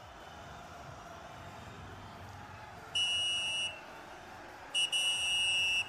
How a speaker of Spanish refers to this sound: Silbatazo, señoras y señores, esto no huele, no huele, apesta tiempo extra.